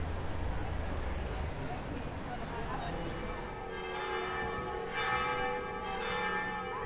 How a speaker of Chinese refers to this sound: 一直很喜欢录教堂的钟声，除了宗教用途之外，它是一天中重要时间节点的指示。有时候坐在小广场上看着鸽子，听着钟声，就会让我觉得，至少生活还在继续。